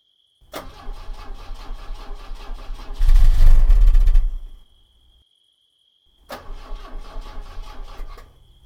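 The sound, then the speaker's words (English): A car engine cranks repeatedly without catching: a steady mechanical whir that swells into a louder, rougher burst, cuts off, then cranks again after a pause, with no voices. “Has it run out of gas?”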